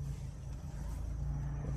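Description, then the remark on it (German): Steady low road rumble of cars coming up ahead on the road, a continuous engine drone with a strong low hum and faint hiss above, no voices, holding even for the whole short stretch. “Jetzt kommen da vorne schon wieder Autos und einhändig fahren, während man diesen verfickten Rekord an der Hand hält, ist gar nicht so einfach.”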